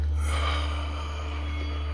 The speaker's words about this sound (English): So, breathing in and breathing out.